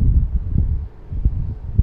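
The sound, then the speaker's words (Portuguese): Wind buffets the microphone in a steady low rumble, with gusty thumps and bursts recurring throughout, fairly loud, with no one speaking. “E o vento está fazendo barulho que eu estou vendo.”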